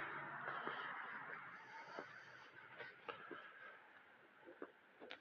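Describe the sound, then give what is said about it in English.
A chicken squawks and clucks almost nonstop, harsh raspy calls with a few sharper peaks, moderately loud, with no one talking. “We got real life sound effects. I don't even have to make this up.”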